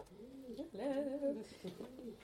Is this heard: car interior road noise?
no